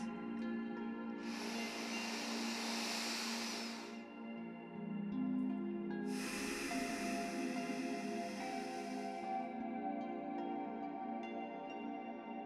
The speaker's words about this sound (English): I only need to be right here, right now, where I'm breathing in a lovely deep breath.